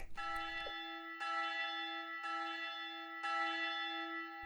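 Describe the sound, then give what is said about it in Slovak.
A clock bell strikes one o'clock, ringing four times at a steady pace, about one second apart. Each loud, resonant ring hums on and overlaps the next, with no voices. “Bim, bam, štvrť, bim, bam, pol, bim, bam. Bam. Tri štvrte. Bim. Bam. Jedna hodina.”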